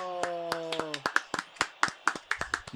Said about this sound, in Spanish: ¿Cómo están, muchachos? Aplauso, aplauso, Hola, hola.